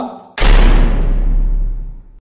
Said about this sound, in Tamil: இந்த மாதிரி சத்தமாக பெட்ரூமில் இருக்கிற கதவு அதுவே க்ளோஸ் ஆச்சு